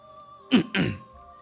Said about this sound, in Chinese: 我清了清嗓子。